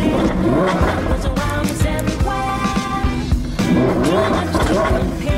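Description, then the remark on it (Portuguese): The 5.2-litre, 640-horsepower V10 engine of a Lamborghini Huracan Evo Spider, the roofless Huracan Evo, revs loudly and continuously, its rich harmonic roar rising and falling in pitch through several throttle blips over about five seconds, with no voices. “A versão sem teto do Huracan Evo tem um motor 5.2 V10 com 640 cavalos, suficientes para levá-lo de 0 a 100 km em 3.1 segundos.”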